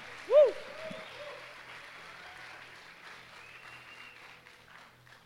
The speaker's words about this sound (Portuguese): Uh! Aplauda o Espírito agora.